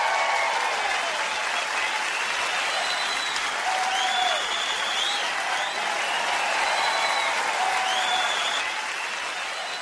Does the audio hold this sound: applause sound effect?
yes